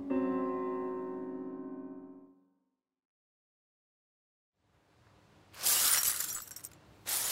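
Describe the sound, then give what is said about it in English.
A glass mirror that was leaning against a counter is bumped into and crashes to the floor, shattering in a loud, bright burst of breaking glass, after a steady ringing tone fades into silence and a brief rumble. A second sharp crash follows. “I smacked into it. It smacked onto the floor and.”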